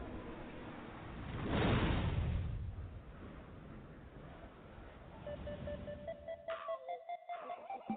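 A hip-hop song intro: a broad whooshing swell fades into sustained electronic synth tones, then choppy rhythmic pulses build near the end, fairly soft and with no talking.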